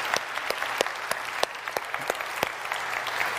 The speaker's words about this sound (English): Hey guys, can we give our teenagers and Sam and these guys one more round of applause? That was incredible.